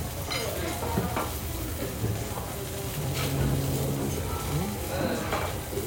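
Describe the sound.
Food sizzles steadily on a teppanyaki griddle at 初魚鐵板 (Chu Yu Teppanyaki), a dense, continuous crackle and hiss lasting the whole stretch, with occasional soft scrapes and faint murmuring voices in the background.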